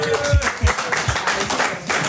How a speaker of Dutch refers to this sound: Dank u wel. Ja. Applaus, dames en heren.